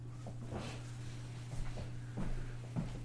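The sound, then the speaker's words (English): A door being opened: a few soft clunks and rattles spread over a few seconds, fairly quiet, over a steady low electrical hum. No one speaks. “You open up, open up the door?”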